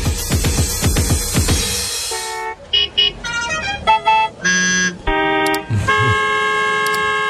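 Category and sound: vehicle, car horns honking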